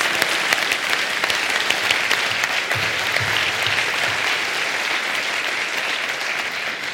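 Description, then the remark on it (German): A crowd applauds steadily for several seconds, a dense, even wash of many clapping hands, with no voices standing out above it. “das verdient einen Applaus.”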